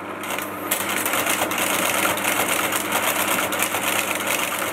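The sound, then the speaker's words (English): An old room-sized LGP-30 computer runs loudly and steadily, a dense mechanical whir and hum with rapid rhythmic clattering throughout, continuous with no voices. “Ellen remembers how loud that lgp 30 computer was.”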